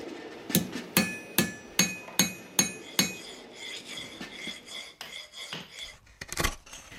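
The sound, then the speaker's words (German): A silversmith hammers silver while forging spoons the old-fashioned way in her workshop at the Kollandsrygard farm: a steady run of about seven sharp, ringing metallic blows, then lighter taps, clinks and scraping of metal work. No one speaks. “Jeg lager smykker, og så smir jeg skjeer fra den på den gammeldagse måten.”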